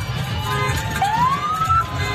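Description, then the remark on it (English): A siren from a Rutherford County Sheriff's Department escort of the Oakland Patriots' team buses, with fans honking horns, rises in a long upward sweep over a steady low rumble of traffic, its wail clear but not overpowering, with no one speaking. “So you had the Rutherford County Sheriff's Department escorting, and you had a crowd of fans honking horns, shaking those bells, cheering on the Oakland Patriots as they were on their way in the big buses.”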